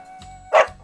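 A dog gives one short, sharp bark that stands out loudly against a faint, steady background hum.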